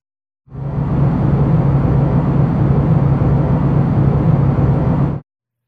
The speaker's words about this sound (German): Wir können weißes Rauschen nehmen und den Hall von einem bestimmten Raum darauf rechnen. Und schon klingt es so wie diese Raumkulisse eben. Ich kann das mal vorführen hier am Beispiel eines Tunnels.